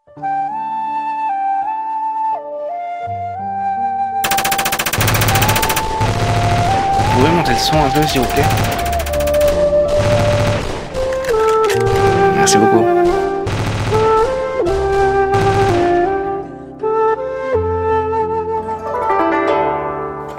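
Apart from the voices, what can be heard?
gunfire fusillade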